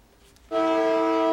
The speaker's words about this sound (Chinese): 台铁树林站即将出发往台东对号列车六四二车次出发前，刚好遇到另一个月台进站列车，两列火车同步鸣笛。因为时间刚好是上午九点二十八分，台铁四零八车次泰鲁格号意外事故发生当下的时间。